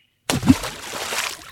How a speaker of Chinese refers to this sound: 咕咚，就是它了。 哦，原来是这样啊！嗯，咕咚是木瓜掉进水里的声音，一点儿也不可怕。